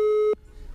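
A telephone disconnect tone after a caller's phone-in call on the Atlântida radio line drops: one loud, steady, mid-pitched electronic beep lasting about a third of a second, then abruptly cut off, leaving faint background hiss.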